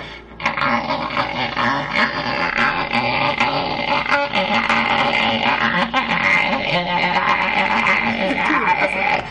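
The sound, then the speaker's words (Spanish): A voice imitates the mewing of a newborn kitten whose eyes are not yet open, a steady, wavering stream of thin, whiny squeals that runs for several seconds, loud and without a break. “gato sin abrir los ojos y que hacen como ese sonido”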